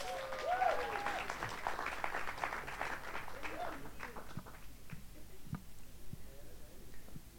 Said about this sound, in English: Please give them a round of applause as they go back.